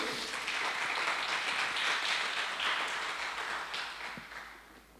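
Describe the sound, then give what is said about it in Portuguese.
An audience applauds the Lord steadily, a dense wash of many hands clapping at once, holding strong for about four seconds before tapering off near the end. No one speaks over it. “Você pode dar um aplauso ao Senhor aí?”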